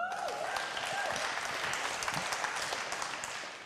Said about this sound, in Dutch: Is Jezus voor je? Ja, geef hem een groot applaus.